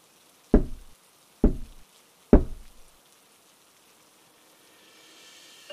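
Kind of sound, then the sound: household object, knocking on a door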